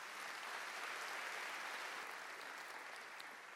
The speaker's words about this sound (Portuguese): Dê um aplauso se você crê, em nome de Jesus.